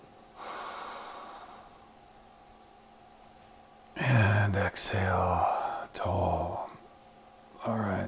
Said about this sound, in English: Inhale wide. Exhale tall. Inhale wide. And exhale tall. Inhaling wide.